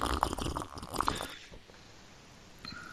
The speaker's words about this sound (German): Erstmal, es war ja so aufregend jetzt alles und ich habe mir jetzt schon den Mund fusselig geredet, kurz mal einen Schluck von meiner Multivitaminsaftschorle trinken.